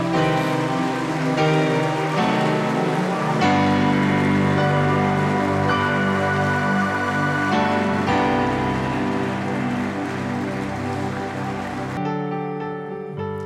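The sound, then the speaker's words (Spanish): A church audience applauds the Lord after a prayer, clapping steadily and loudly for over ten seconds, a dense continuous patter blended with sustained keyboard chords that shift every few seconds; no one speaks. “démele un fuerte aplauso al Señor.”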